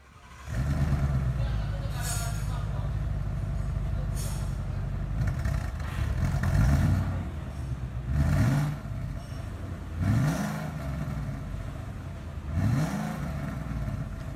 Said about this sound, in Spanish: Es un sonido muy bronco, bastante grave, eh, con la profundidad del multicilindro. Es obviamente un motor Ford, hoy es el día de Ford aquí en En Marcha.